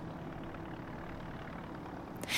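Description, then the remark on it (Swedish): A helicopter engine idles on the runway at John Wayne Airport in Orange County, California, USA, at 9:00 on the morning of Sunday 26 January 2020, with a steady, even low rumble that holds for the whole stretch, ending with a short burst of brighter hiss. No voices. “På John Wayne Airport i Orange County står en helikopter redo på landningsbanan.”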